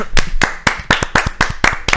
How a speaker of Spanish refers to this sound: Así que un aplauso para nosotros.